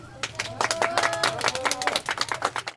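A small group claps steadily for a few seconds, a dense run of sharp, close hand claps, with faint voices and a low hum underneath.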